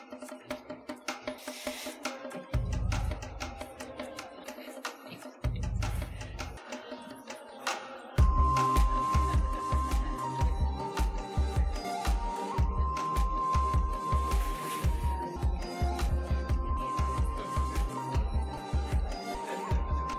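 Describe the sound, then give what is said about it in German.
Instrumental background music plays steadily during a church service, starting with sparse low bass notes and swelling around eight seconds into a fuller arrangement with a sustained melody over a rhythmic beat. “Vielleicht können wir so ein bisschen Hintergrundmusik”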